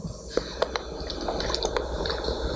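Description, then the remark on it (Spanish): Someone drinks water, with a few soft, scattered sips and swallowing clicks over a quiet background hiss. No one speaks. “En lo que tomo agua.”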